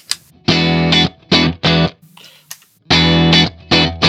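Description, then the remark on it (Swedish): Distorted electric guitar chords ring out through a pedal in several loud, chopped bursts with short pauses between, the boom of the thick low E string kept in check under a bright, saturated tone. “Man, man hör ganska tydligt att, att E-strängen, tem, den tjocka E-strängen tämjs lite.”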